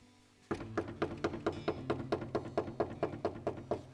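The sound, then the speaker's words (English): A rapid, steady series of about fourteen knocks, evenly spaced at roughly four per second, starting after a brief pause and continuing to the end over a low background hum. “And at the door, and knock.”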